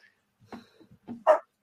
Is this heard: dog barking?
yes